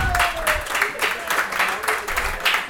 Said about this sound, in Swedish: Veckans gäst i Carricks Corner, en varm applåd för Daniel Theorin!